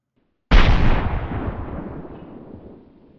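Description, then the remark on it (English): A single gun firing effect: one sudden, loud blast with a sharp attack, followed by a deep rumbling tail that slowly fades out over about two and a half seconds. No voices. “We fired, and the man slapped his head in annoyance.”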